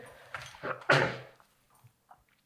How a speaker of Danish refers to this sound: Undskyld, det var lidt host.